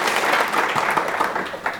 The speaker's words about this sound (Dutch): U mag klappen hoor